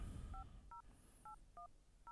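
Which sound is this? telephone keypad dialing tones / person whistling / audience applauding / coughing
telephone keypad dialing tones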